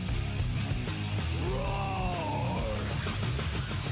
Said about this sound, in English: I'm yelling and screaming and I'm loud.